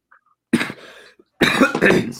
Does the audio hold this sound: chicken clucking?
no